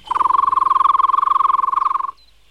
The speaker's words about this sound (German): Wer hat diesen trillernden Pfiff denn eigentlich gemacht?